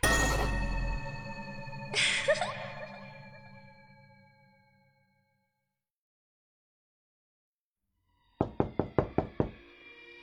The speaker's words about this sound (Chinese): 朦胧中，我被一阵巨大的敲门声吵醒。我不喜欢睡觉的时候被打扰，更讨厌打扰我的人。